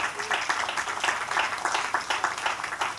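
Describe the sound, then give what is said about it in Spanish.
A church audience breaks into steady applause for the Lord during a sermon, a dense, crackling wash of many hands clapping at once, holding an even loudness with slight surges throughout. “Den un aplauso al Señor, por favor.”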